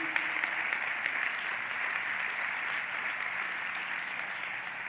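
A large gathered crowd claps steadily for five seconds, applauding to give thanks to God, a dense, even wash of applause with no pauses and no voices breaking through.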